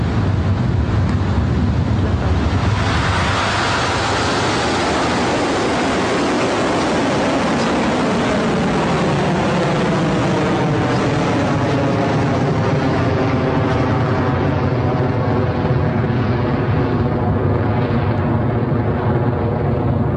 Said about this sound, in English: And that is a beautiful liftoff for Electron.